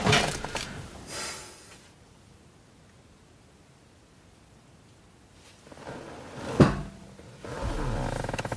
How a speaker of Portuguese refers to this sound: Vou abrir a porta do carro para ver se apanha net, caralho.